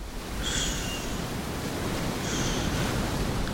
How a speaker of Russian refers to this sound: И потом эта песенка волн.